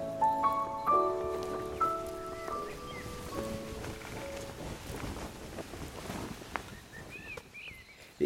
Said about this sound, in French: Faut voir tous ces draps euh, blancs comme du muguet claqués au vent. Si je ferme les yeux, j'ai l'impression d'entendre les voiles d'un bateau.